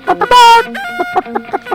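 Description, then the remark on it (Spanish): A hen clucks in a quick, rhythmic run of short bursts, broken early by one longer, louder squawk, then the sharp clucks resume at a steady pace. “Si así es con los pollitos, ¿cómo será con la gallina?”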